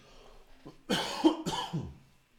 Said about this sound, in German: So, jetzt muss ich gleich husten.